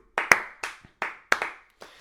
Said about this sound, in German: Also ui, mal eine kleine Runde Applaus.